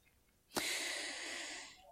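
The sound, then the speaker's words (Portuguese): A single deep breath drawn in during a guided mindfulness exercise, starting abruptly and holding as a steady airy rush for just over a second before fading, with no talking. “Ah, aquela respiração profunda.”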